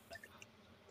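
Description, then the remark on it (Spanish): Cool, fresh water being poured into a glass: a quiet, brief trickle with a few bright, ringing plinks near the start, then a soft fade, heard alone without any voices. “Nos, nos dan agua fresca.”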